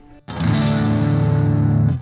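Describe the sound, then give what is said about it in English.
A heavily distorted electric guitar chord, played through a distortion pedal being demonstrated with its gain switches off and then gain one on, rings out loud and sustained for nearly two seconds after a brief quieter moment, thick with saturated harmonics, with no voices present. “This is both of them off for just kind of an easy distortion, and then gain one on.”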